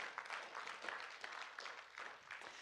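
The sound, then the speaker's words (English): A crowd claps steadily for a few seconds for two people who shared a story, a dense patter of many hands blending into an even wash of applause at moderate volume, with no voices rising over it. “Let's give another clap.”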